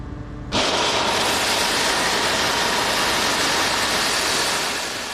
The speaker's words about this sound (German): Sieben Meter tief dringt der Bohrer in die Wand ein. Das ist ganz schön laut. Ohne Gehörschutz ist der Lärm kaum zu ertragen. Die Bohrlöcher haben einen Durchmesser von knapp 4 cm.